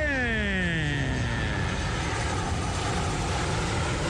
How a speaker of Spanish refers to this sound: Otro avión, ahí va.